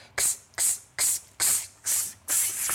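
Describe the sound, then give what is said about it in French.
Voices imitate cicadas with a string of sharp, hissing breaths as a breathing exercise with hands on the floating ribs, about six loud bursts in quick, steady rhythm with brief gaps between them, bright. “On fait les cigales.”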